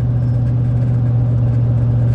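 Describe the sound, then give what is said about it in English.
Steady car road noise while driving: a continuous low rumble with a strong, even engine hum and a faint hiss above, loud and unbroken throughout, with no voices. “Uh, like I said, this is on the road, so you're you're hearing me as close to live as you can.”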